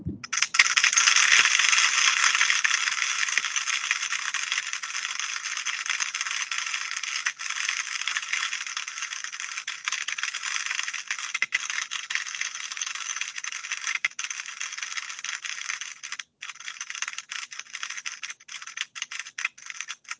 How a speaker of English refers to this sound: Right, here's another movie. This is listening to one set of acoustic emissions in the dry data